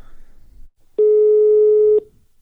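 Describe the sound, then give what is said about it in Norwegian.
A single steady electronic phone tone sounds for about one second, clear, like the ringback heard while an outgoing call to a man's number connects, with faint background noise before and after. “Nå har jeg nummeret hans, nå prøver jeg å ringe.”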